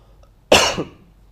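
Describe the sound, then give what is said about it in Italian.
A single sharp cough bursts out, loud and abrupt with a quick raspy tail, surrounded by near silence. “Prima tosse”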